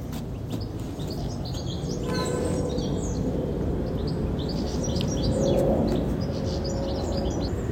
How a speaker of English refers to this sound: Can you hear that? That tinkling sound in the background. That's a goldfinch